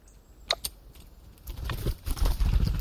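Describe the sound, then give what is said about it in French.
A great spotted woodpecker hammers at a walnut wedged in the crack of an ash tree in the Drôme, France, in October, with a series of sharp, irregular taps, fairly crisp, over a low rumbling background that grows louder toward the end. “Il commence à l'ouvrir à grands coups de bec mais il n'est pas le seul intéressé.”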